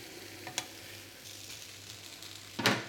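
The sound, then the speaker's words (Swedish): Burgers sizzle steadily on an electric grill as its lid is lifted to check them after cooking finishes and the grill switches to keep-warm mode, a crackling hiss with a low hum beneath, broken by a couple of sharp clatters, the last one louder near the end. “Nu lyfter jag här för att titta hur mina burgare ser ut.”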